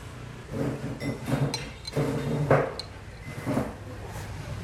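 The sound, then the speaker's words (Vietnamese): Bowls and chopsticks clink lightly at irregular moments at a pho restaurant in Hanoi, with sharp little knocks against a steady murmur of background noise, moderately quiet and without clear speech. “cảm nhận những âm thanh tiếng lách cách của bát đũa, tiếng kéo ghế, tiếng xì soạt hút những thìa phở thơm phức”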